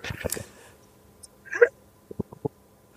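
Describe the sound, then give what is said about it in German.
A sneeze bursts out, a sharp breathy explosion of sound, followed by a few small clicks and noises in otherwise quiet surroundings. “Gesundheit.”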